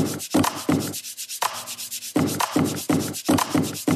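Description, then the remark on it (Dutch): A hand rubs over the body of a folded DJI Mavic Pro drone set on the ground to make music, in quick, rhythmic strokes, loud, the swishing scrapes falling into a steady beat-like pattern with a brief quieter gap midway. No voices. “Deze geluiden worden gemaakt door de drone op de grond te zetten, door hem in te klappen, er overheen te wrijven.”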